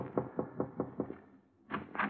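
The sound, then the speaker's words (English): A quick, even series of six soft taps as a man taps gently on a door, followed after a short pause by two fuller, louder knocks, with no voices. “A half hour later, he was tapping gently at my door.”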